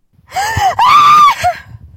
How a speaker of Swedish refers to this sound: … skriker, skärande och skräckslaget.